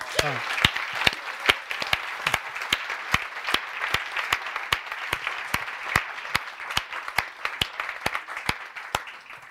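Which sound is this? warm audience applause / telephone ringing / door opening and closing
warm audience applause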